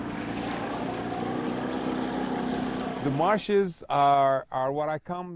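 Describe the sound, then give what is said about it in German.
A boat's motor drones steadily with a broad wash of water and wind noise as the boat travels through marshes in the hours before sunset, then a man starts speaking over the fading engine sound for the last couple of seconds. “Alle sind zurückgekehrt in die Boote.”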